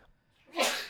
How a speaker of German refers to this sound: Gesundheit.